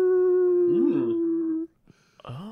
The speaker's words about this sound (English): And you know how all my friends know how normally there's an orca sound, uh, but this time it's a wolf.